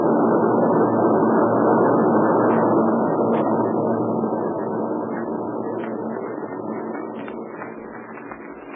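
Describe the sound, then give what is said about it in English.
A loud, steady engine drone of warplanes flying overhead, a deep broad roar that holds constant and slowly fades as the aircraft pass out of sight. “Meanwhile, let's stay right here where we are until those warbirds get out of sight.”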